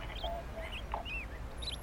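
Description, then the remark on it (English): Faint, scattered chirps and short tweets of birds at a nest, several small calls over a couple of seconds, set against a low steady background rumble with no voices. “It's just you and me. And the birds.”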